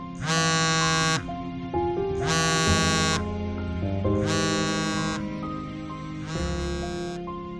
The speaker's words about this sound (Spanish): Encima de una mesa había unos pasaportes a mi nombre, junto a un móvil que sonó justo en aquel instante.